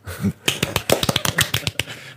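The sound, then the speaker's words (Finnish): A short burst of light, quiet clapping from a few hands, quick irregular pats lasting about two seconds, soft like polite golf applause. “ja sitten vielä pienet golftaputukset tai ehkä vähän raikuvammat tap taputukset oikeastaan”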